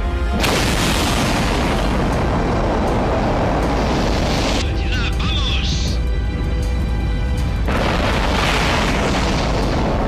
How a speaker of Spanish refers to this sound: Encendido. Encendido. ¡Despegue!